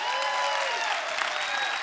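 An audience claps for veterans in a dense, continuous wash of applause, loud and even throughout with no voices standing out.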